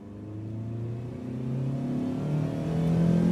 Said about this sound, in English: I'm about to give up on what I think will be my last day not seeing nothing when a shiny 39 Caddy Fleetwood comes motoring down the street. I duck low in my seat till I recognize Mr. D at the wheel of the deep burgundy beauty.